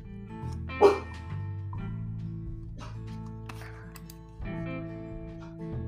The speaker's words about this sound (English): Sorry, one of the dogs was barking.